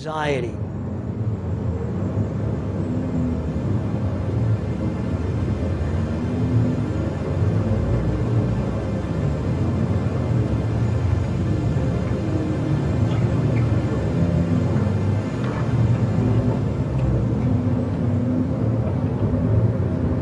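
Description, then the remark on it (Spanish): A low, muffled murmur of many voices blends into a dense, steady drone, with no single speaker standing out, continuous and even throughout at moderate loudness. “Uh, la muchedumbre emite una suerte de zumbido bajo, un clamor amortiguado, como si fuera el sonido del pánico y de la ansiedad.”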